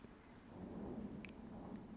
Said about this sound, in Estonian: noh, selle lause peale meil hakkas müristama midagi väärikas vist ei, või nendes mikrofonides vist ei kosta, aga aga okei okay.